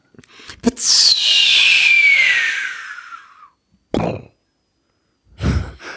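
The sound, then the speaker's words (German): A voice imitates a firework rocket: a quick clicking ignition, then a long hissing whistle gliding downward in pitch, followed by two short breathy bursts for the explosion. “An der Explosion am Ende muss nur arbeiten, aber ich finde das Anzünden und Wegfliegen finde ich großartig.”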